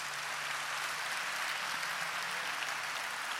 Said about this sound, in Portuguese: Vamos aplaudir esse Deus maravilhoso.